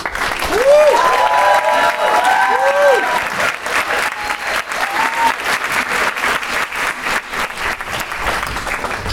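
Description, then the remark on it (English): A big crowd applauds steadily for the whole stretch, a dense, loud patter of clapping, with a few rising-and-falling whoops or whistles cutting through near the start, welcoming the next speaker at a talk. “And can we please give a massive round of applause?”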